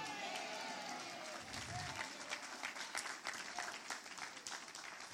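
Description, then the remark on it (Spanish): A church audience applauds steadily for several seconds in praise of the powerful hand of God, a dense, continuous crackle of many hands clapping at once, with faint crowd voices mixed in. “Pero eso merece un mejor aplauso.”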